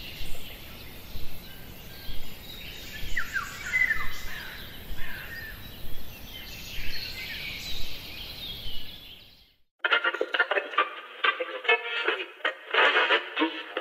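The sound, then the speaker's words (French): Small songbirds, tits and other passerines, chirp and trill continuously over a dense outdoor background; after a brief pause, a louder, harsher stretch of rapid, overlapping calls follows. “Dans le même temps, on réintroduira les mésanges, les passereaux et d'autres oiseaux selon le critère de la beauté de leur chant.”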